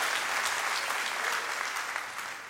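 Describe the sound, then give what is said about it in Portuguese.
An audience claps together in sustained, dense applause, a steady wash of many hands that stays fairly loud and fades slightly toward the end, with no voices standing out. “Pode aplaudir mesmo.”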